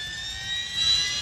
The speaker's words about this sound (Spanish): Vámonos en el helicóptero.